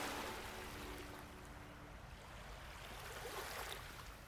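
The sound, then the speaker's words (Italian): Waves, stirred by a strengthening wind, break steadily on the beach of Lake Benaco, a continuous hissing wash of water with no pauses. A faint low hum lingers underneath for the first couple of seconds. “E questo è il primo verso latino di cui io scorga il significato vivo davanti il mio sguardo, e ciò nel momento appunto in cui le onde, agitate dal vento fattosi più gagliardo, si frangono sulla spiaggia.”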